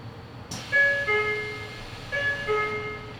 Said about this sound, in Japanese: 名古屋岩倉方面急行新車駅発車で次は野間に停まります。ドア閉めます。ご注意ください。